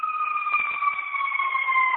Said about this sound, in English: Yeah, interesting that that siren is going by at this time when you're saying that.